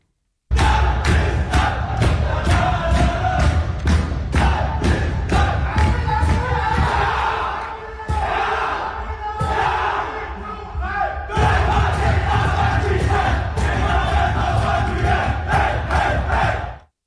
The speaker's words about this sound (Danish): og nu er jeg godt nok ikke Brøndby-fan, men altså, man kan da ikke blive andet end glad af sådan en omgang slagsang her.